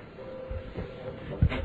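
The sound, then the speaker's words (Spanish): A few heavy, uneven footsteps of a peasant returning to his hut thud over a low rumbling background, quickening toward the end like someone hurrying back. No one speaks. “En unos cuantos minutos se escucharon otra vez los pasos del campesino que regresaba a su jacal sumamente alarmado.”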